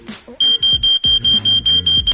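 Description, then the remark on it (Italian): A piercing electronic alarm beeps rapidly in short, evenly spaced pulses, loud, repeating about eight times after a brief faint murmur at the start. “Allarme radio.”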